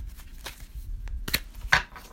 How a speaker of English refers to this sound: I just shuffle the cards and then I just close my eyes and with my non-dominant hand I'll pick a card.